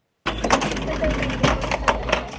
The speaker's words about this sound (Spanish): El sonido de una caja registradora es música para el oído de Katia.